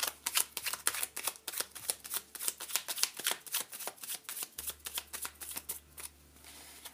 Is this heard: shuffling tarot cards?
yes